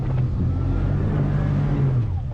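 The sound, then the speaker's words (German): The steady, loud engine of a small transport boat drones with a deep low rumble and a slightly shifting pitch as it battles through rough sea, overlaid by broad rushing noise of strong westerly wind and churning water, on the way to the Cordouan lighthouse in the Gironde estuary, France. No one speaks. “Das kleine Transportboot kämpft sich durch die aufgewühlte See.”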